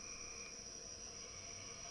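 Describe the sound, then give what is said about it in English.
A steady, dense chorus of narrow-mouth toads, upland chorus frogs and gray tree frogs drones from a swamp, layered high buzzing trills blending into a continuous, fairly quiet wash with no voices. “Um, it's got narrow-mouth toads. That's that kind of sheep sound, that mm-hmm.”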